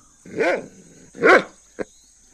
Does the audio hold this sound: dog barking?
yes